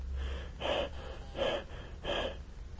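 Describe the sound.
Heavy panting breaths, three loud, breathy exhales in a steady rhythm about a second apart, alone with no talking.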